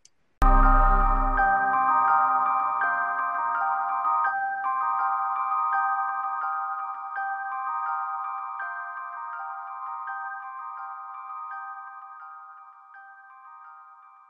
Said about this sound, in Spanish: ¿Qué es esto? ¿Qué es este instrumento tan raro? Son unas campanas tubulares.